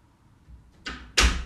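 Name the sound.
door being closed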